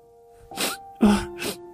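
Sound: sniffling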